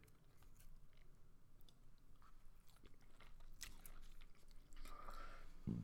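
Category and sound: food or drink, chewing food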